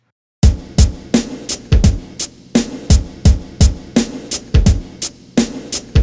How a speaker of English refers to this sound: Now I've layered on top of that with a deeper kick drum. a hi hat that resembles Premier's hi hat in an intermittent pattern.